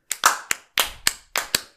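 Applause made of a handful of sharp, crisp hand claps, about seven in under two seconds, in a loose uneven rhythm with brief gaps between them and no voices.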